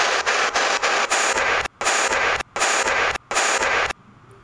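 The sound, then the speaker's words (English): Loud, harsh white-noise static hisses steadily, broken by a few brief dropouts, then cuts off near the end into near silence. No voices are present. “Again, it was in the white noise.”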